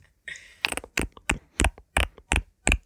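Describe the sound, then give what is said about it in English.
A woman imitates a frog with throaty croaks made in her throat, about eight short, rasping pulses in a steady rhythm, fairly loud, with no talking over them. “Wait, she could croak like a frog.”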